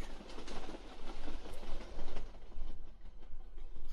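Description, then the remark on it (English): A train rolls steadily along the railroad tracks, a continuous rumbling roar with a faint rhythmic clatter of wheels over rail joints, no voices present. “You hear a bam as an electrical signal as it sort of pulses down the railroad towards the dark that you can't see but know is there.”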